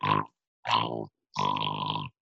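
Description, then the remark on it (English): A person imitates snoring with three rough, throaty snorts separated by short pauses, the last one drawn out longer than the first two. The snorts are moderately loud, with no other talking. “but as soon as you start snoring, that's the night.”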